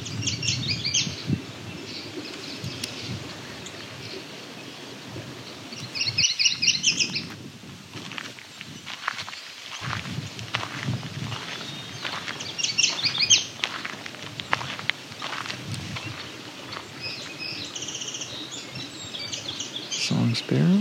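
An eastern meadowlark sings clear, whistled phrases that repeat every few seconds, prominent over a steady rustling, low background rumble.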